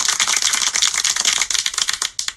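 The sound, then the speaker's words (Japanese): A quick flurry of hand clapping, dense and crisp, with sharp overlapping claps running steadily for about two seconds before a few last separate claps at the end. No one talks. “えー、今日は通算10回目の韓国旅行でパスポートと財布をなくした話をしたいと思いますパチパチ”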